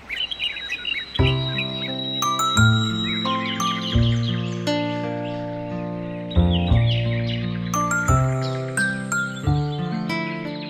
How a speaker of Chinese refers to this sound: 你有没有听过麻雀的声音呢？有啊有啊，它就啾啾啾啾啾啾啾啾啾，好吵好吵那个。没错，那个就是麻雀的声音。